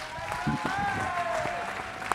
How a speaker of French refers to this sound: je pense qu'on peut les applaudir même si elles ne sont pas là.